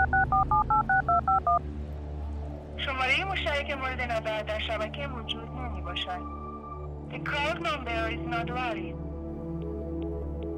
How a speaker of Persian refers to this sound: گوشیمو در آوردم و شمارش رو گرفتم